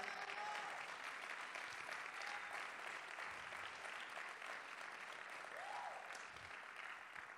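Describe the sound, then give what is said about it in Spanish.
A church audience claps for the Lord during a sermon, steadily for about seven seconds, a dense, even wash of applause that holds its loudness throughout, with a few faint voices rising briefly above it. “Vamos a darle ese aplauso fuerte al Señor.”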